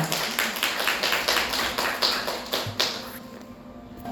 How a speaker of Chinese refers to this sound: 好，来，他感动很多，我们给他，请他跟大家拍手。